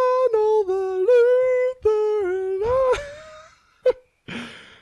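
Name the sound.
voice imitating a roar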